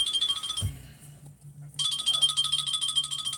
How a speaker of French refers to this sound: Euh, alors, j'ai un petit coup de téléphone, je suis obligé de répondre.